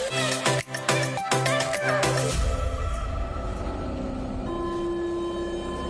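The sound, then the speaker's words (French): A metro train: a shrill, pulsing tonal squeal at first, then a steady rumbling roll with a droning motor whine rising in pitch as it moves. “J'ai la chance d'avoir un, un, moyen de transport, à savoir le métro, et ce n'est pas forcément le cas de tout le monde.”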